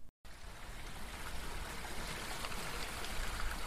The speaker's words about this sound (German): Der Mühlenbach plätschert dahin, unter einem Brückchen. Die Holzlacher Mühle steht nicht am rauschenden Bach, wie im Lied von der klappernden Mühle. Sie hatte mal einen eigenen Mühlenteich, mit Kanälen bis zum Mühlenbach.